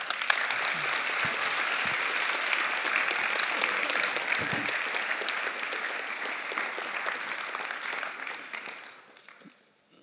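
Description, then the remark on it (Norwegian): An audience applauds steadily for about nine seconds to thank a speaker, a dense wash of many hands clapping at an even level before it thins out and fades away at the end. “Kan vi gi deg en eh, god applaus?”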